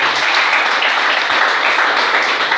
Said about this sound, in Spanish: ¿cuánto pueden dar gloria a Dios por eso? Dile al Señor un aplauso esta mañana.